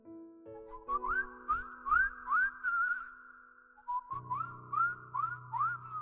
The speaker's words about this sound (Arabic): بتسمع بتسمع الصفار وهو بيصفر نفس النغمة كل يوم نفس النغمة المبهجة نفس النغمة السعيدة